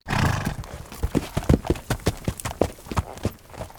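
Horses trot by with a steady run of sharp, loud clip-clop hoofbeats, while a whinny rises at the very start before the rhythmic hooves take over; Shadow, grandma's pony, pulls a wooden cart as the group rides with all their horses to the harbour.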